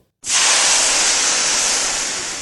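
Water is poured into a glass, a steady, loud rush, a continuous bright hiss that starts abruptly and holds evenly for about two seconds before tapering slightly. No voices.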